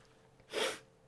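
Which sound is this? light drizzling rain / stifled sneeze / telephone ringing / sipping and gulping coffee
stifled sneeze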